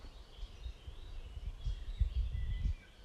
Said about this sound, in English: And just be in that state of alertness, of presence, aware of your breath aware of the sounds of the forest,